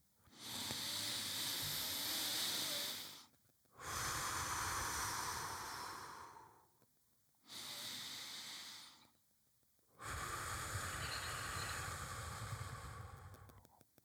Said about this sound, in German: Und so können wir auch Geräusche jetzt machen beim Ein- und Ausatmen. Also lasst eure Augen geschlossen, habt gerne weiterhin eure Hände auf dem Bauch. Und wenn wir jetzt einatmen und ausatmen, dann kann es ungefähr so klingen.